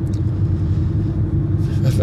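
A steady, loud low-frequency rumble fills the inside of a moving car, a constant road and engine drone with faint higher hiss flickering in toward the end.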